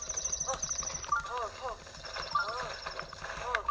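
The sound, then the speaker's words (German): A horse in a video game whinnies in rising and falling cries while hooves clop in a steady, quick rhythm, moderately loud, with some voice sounds mixed in the background. “Du bist ein gutes Pferd.”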